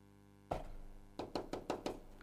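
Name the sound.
knocking on a door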